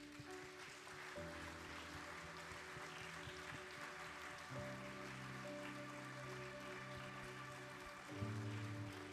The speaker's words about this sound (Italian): perché Lui è degno, cari. Difficilmente chiedo di fare applausi, ma sento nel mio cuore che Lui merita più di questo applauso.